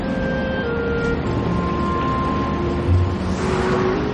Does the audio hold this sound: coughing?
no